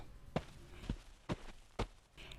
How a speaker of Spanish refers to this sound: Rato después, oyó acercarse al rancho, sobre la tierra dura, unas pisadas descalzas.